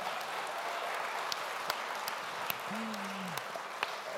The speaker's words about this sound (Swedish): Let's hear it again for these great students. låt oss ge dem en applåd igen.